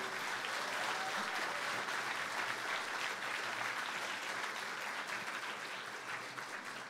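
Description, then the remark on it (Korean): Sustained audience applause for the invited guests at a regular orchestra concert in Korea fills the whole stretch, a dense steady patter of many hands clapping at an even loudness without pause. “이 자리에 함께 해주시고 빛내주신 내빈 여러분들께 다시 한번 큰 박수 부탁드립니다.”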